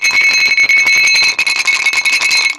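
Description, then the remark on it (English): Whiskey stones chilled in the freezer rattle and clink together in quick succession, a loud, continuous jostling with bright ringing tones, heard alone without any talking. “Um, so I've got the uh, as we've done before, I've got the rocks yes. that are out of the freezer.”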